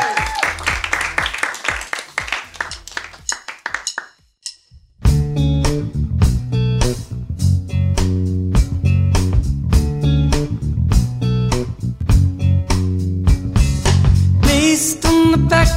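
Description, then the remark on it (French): Applause and cheering fade into a brief pause, then a live band kicks in loudly with a steady drum beat, deep bass and chords that carry on without vocals, playing live on Ram Radio from the Salon Secret. “On vous écoute donc euh, maintenant.”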